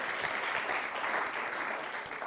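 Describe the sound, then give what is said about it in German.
Steady, dense clapping from a crowd fills the whole stretch, a continuous wash of many hands at even volume with no voices standing out. “Jetzt könntet ihr wieder einen Applaus geben, aber müsst ihr nicht.”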